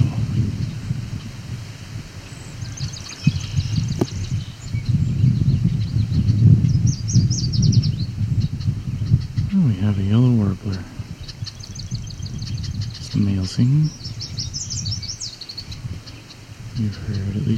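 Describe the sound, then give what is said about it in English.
A yellow warbler sings several short, bright, high-pitched phrases a few seconds apart, in slightly different variants, over steady outdoor rustling and wind noise, with a brief low voice between. “Is there a yellow warbler in here?”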